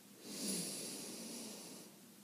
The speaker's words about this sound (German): Und damit wir uns noch besser konzentrieren können, atmen wir jetzt einmal durch die Nase ganz tief ein,